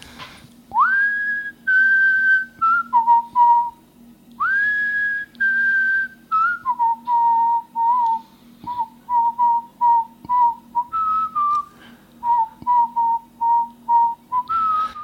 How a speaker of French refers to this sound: ça y est, tu, vas nous siffler un petit morceau